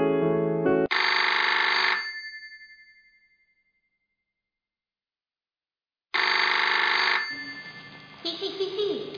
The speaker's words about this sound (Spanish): Al dormirse la nena, suena el teléfono y la abuela contesta rápidamente.